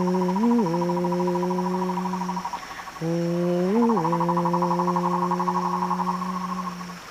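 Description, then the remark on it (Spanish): An owl gives two long, low hoots, each held for about three seconds with a brief upward bend near the start, steady over a faint buzzing insect drone. “Búho, cuéntanos lo que ves tú más allá.”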